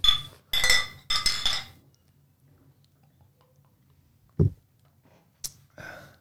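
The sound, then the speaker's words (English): Glasses of amber beer clink together in a toast, three bright ringing knocks in quick succession, then quiet with a dull thump and a couple of lighter taps near the end. “Cheers.”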